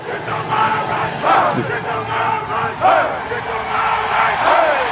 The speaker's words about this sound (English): The chant is get your mind right. It's the mantra of the man out front, the heartbeat of the Alabama Crimson Tide.